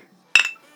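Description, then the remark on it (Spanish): A single bright, sharp clink of glasses touching in a toast, with a short ringing tail that fades quickly in an otherwise quiet moment. “Pues salud por el arte ser ligero.”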